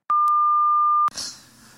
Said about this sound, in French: Bonjour, vous êtes bien sur le répondeur du Opération Bikini Vous pourrez enregistrer votre message juste après le bip sonore.